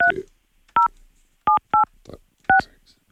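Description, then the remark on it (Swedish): A phone number is dialed on a keypad to call someone during a live broadcast: five short, loud dual-pitched beeps at uneven intervals, with faint murmuring between some of them. “av någon anledning så har han försvunnit så jag får försöka göra något jag aldrig har gjort och försöka ringa upp honom i direktsändning.”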